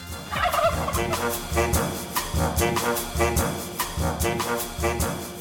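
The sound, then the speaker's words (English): Turkeys gobble loudly, a dense stream of rapid, rattling gobbles that overlap and repeat steadily for several seconds with no talking. “Why do turkeys gobble?”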